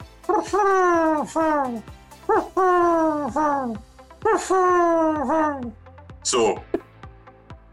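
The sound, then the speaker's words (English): A person imitates a wood pigeon's call, voicing several phrases of soft, rhythmic hooting coos, followed by a brief laugh and a spoken word. “So wood pigeon, how about that? And people will be familiar with the sound of a wood pigeon, right?”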